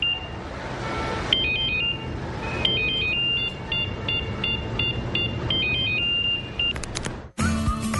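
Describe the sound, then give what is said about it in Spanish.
A mobile phone ringtone chirps a repeating electronic melody of high, stepped tones over a busy, noisy background, cutting off abruptly near the end before a short burst of different noise. “Si pensaste que sonaba tu celular, es momento de cambiarte a un smartphone.”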